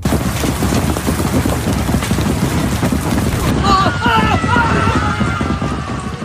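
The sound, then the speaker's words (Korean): Large hail pounds down in a loud, dense, unbroken barrage of hard rattling impacts, depicting the hail falling from the sky on fleeing Amorite soldiers at the Beth-horon pass. About halfway through, high wavering cries rise over the steady clatter. “하나님께서는 하늘에서 큰 우박이 떨어지게 하셨습니다.”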